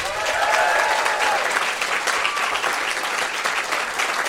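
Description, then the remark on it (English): An audience at the Comedy Lounge, a comedy venue in Perth, claps steadily, a dense wash of many hands sustained at an even, fairly loud level for several seconds, with a few faint whoops rising early on. “Well, uh, because this is the end of the podcast for people at home, can we have a big round of applause for the Comedy Lounge for hosting us here today?”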